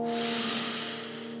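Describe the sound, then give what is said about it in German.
A single deep breath drawn in through the nose during a breathing exercise, a steady airy rush lasting over a second and slowly tapering off, fairly loud, with no talking. “Und nochmal ein.”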